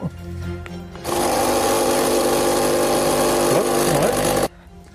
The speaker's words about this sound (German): Ich, ich würde so, jetzt sagen, es ist die Kaffeemaschine.